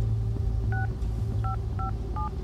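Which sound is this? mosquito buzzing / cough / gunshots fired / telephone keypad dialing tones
telephone keypad dialing tones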